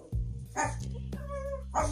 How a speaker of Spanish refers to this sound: Entonces, estos son mis, mis peligrosos perritos ladrando, pero pues también forman parte de el ambiente.